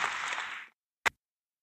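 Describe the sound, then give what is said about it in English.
A short burst of applause, a dense crackling wash of clapping that cuts off abruptly, followed after a brief silence by one sharp, isolated clap. “I don't know where this applause is coming from, but I, I really need it to stop.”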